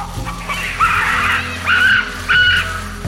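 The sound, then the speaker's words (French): A troop of baboons, panicked at encountering a person, gives loud, harsh barking alarm calls that echo through a valley. Three calls come in quick succession, each a short honking bark ringing out over a low, steady rumble in the background. “Paniquée de l'avoir rencontré, la troupe de singes se met à pousser de puissants cris d'alarme qui résonnent dans toute la vallée.”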